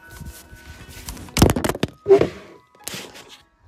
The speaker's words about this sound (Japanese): スマホ落とした